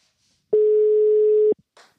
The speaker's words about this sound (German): Das klingelt nur auf einer Seite.